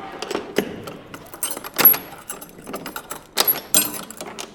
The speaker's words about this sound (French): Donc voilà, les grandes portes qui s'ouvrent à 10h tous les matins, sauf le lundi.